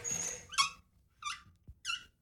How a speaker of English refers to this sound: Well, it's not for me, said Harry, who couldn't stand the piercing squeak the hamster wheel made when either he or Pip were in it.